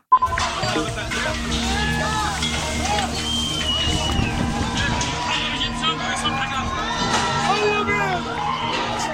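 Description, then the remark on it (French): A crowd of young anti-government protesters in the streets of Beirut, Lebanon, fills the air with dense, continuous shouting and chanting, many voices overlapping into a loud, steady roar with occasional higher cries rising above it. “comme on l'entend dans ce reportage diffusé sur le site de L'Orient le Jour, Beyrouth a des problèmes.”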